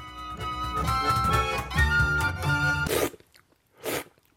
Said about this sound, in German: Schlürfen gehört für ihn zum Handwerk.